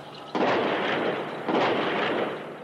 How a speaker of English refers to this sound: just as we were getting in eventually, all you could hear was all the gunshots and the gas.